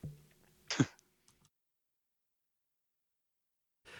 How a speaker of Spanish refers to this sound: Uy, perdón, he tenido un breve ataque de tos.